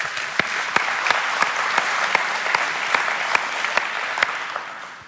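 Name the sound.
audience applause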